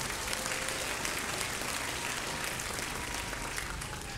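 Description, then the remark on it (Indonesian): A church crowd claps for God, a dense, sustained wash of applause lasting several seconds, with no talking over it and an even loudness throughout. “Berikan tepuk tangan buat Allah kita.”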